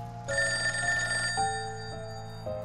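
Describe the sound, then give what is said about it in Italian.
A telephone rings at the Morici family home, loudly, a sustained trilling bell tone that shifts pitch and repeats in short bursts, with no voices present. “Perché, racconterà Enzo agli inquirenti, da un paio di settimane qualcuno si divertiva a telefonare a casa Morici”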